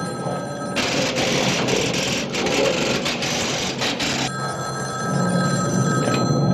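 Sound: telephone bell ringing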